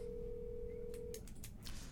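A steady telephone dial tone hums for about a second, then stops as a quick run of short keypad tones follows, dialing a number for an intercom call over a low background rumble.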